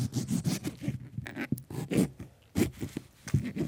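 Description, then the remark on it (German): A knife cuts a lime into cubes on a cutting board while a drink is being made, a series of crisp slicing and crunching cuts in an uneven rhythm, with brief pauses between strokes. “Ich schneide sie gerade in Würfel.”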